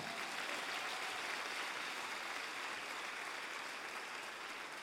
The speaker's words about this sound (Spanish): Y ahora dale un fuerte aplauso al Señor.